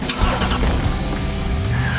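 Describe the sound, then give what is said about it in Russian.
A Brilliance V3 car with a 107-hp petrol engine and automatic gearbox drives past on a test drive, its engine humming steadily with rushing road and tire noise throughout, and a brief tire squeal toward the end. “Устроим тест-драйв.”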